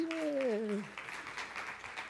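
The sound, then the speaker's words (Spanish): An audience at a sermon applauds the technical team, clapping in a steady, dense patter for about two seconds, while a single sustained voice glides downward in pitch over the opening moment before fading into the applause. “Un aplauso para el equipo técnico, caramba.”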